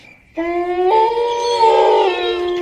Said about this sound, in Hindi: डर के मारे कांप उठे कुत्ते की रोने की आवाज फिर आने लगी